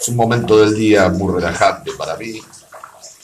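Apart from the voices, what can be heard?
water moving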